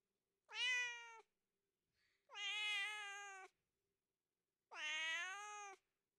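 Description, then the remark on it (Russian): A tomcat yowls in three long, drawn-out mating cries separated by short pauses, each call loud and strongly tonal with a wavering pitch. No one speaks. “Давайте теперь сравним пение соловья ну, например, с кошачьими криками.”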